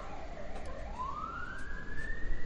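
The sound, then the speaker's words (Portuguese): An emergency siren wails outside and stays in place rather than moving away, its pitch dipping and then sweeping steadily upward in a long rising tone, moderately loud against a rumbling background of street noise with no one talking. “Olha a sirene aí, não vai embora, ficou aqui.”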